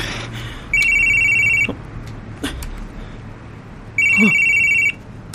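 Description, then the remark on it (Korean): A telephone rings twice in loud electronic trilling bursts, each about a second long with a pause between, over a low hum of background noise. “왜 이제야 전화를 해요?”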